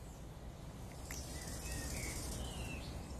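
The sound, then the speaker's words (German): Faint, scattered bird chirps drift over a steady outdoor hiss, with a few thin calls and a soft, continuous rustle of ambient noise underneath. “Du hörst die Vögel zwitschern und das Summen der Bienen.”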